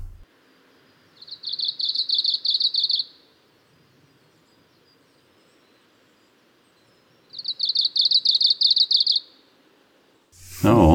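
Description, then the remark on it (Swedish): Two bursts of high, rapidly pulsing warbler song recorded in Japan, each about two seconds long, separated by a pause, over a faint steady background hum. “Ja, då fortsätter vi söderut ner i Japan då.”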